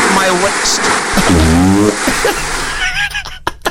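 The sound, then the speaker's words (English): A storm sound effect: heavy rain hisses steadily throughout as a loud wash of noise, with a voice calling out over it and a few sharp crackles near the end, presented as a terrible storm in Walla Walla, Washington, with water rising. “Adam, it's a terrible storm here, and the ducks, ducks are flying running away from the storm.”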